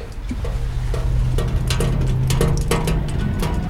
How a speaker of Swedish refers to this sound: Takdropp. Det har regnat det är fortfarande så regnvatten på taket här på stadion efter finkampen. Det tar tid innan det har runnit bort.